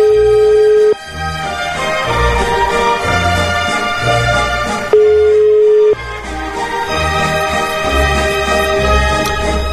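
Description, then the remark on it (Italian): Loud mobile phone interference buzz, a harsh electronic chatter of rapid rhythmic pulses with a steady tone briefly underneath, continuing throughout with no one speaking. “Scusate, i cellulari dov'è che li ficcate esattamente?”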